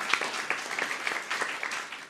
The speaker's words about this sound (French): on t'applaudit déjà. Beaucoup d'encouragement.